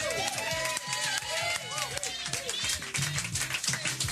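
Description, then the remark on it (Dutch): A crowd applauds steadily, many hands clapping in a dense continuous patter, with cheers and whoops rising over the clapping throughout. “En ik wilde graag ook even, en dat, dat is de enige die ik nu even op mijn voetstuk ga zetten, een applaus”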